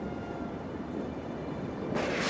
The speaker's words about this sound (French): Il faut regagner le village, car le tonnerre gronde et bientôt le feu sortira du ciel.